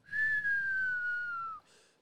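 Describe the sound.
A person in an elevator whistles a single long descending note that slowly falls in pitch, mimicking an incoming missile, ending abruptly with a short burst of noise like an impact.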